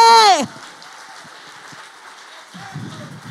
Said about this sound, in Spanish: Dale el aplauso fuerte.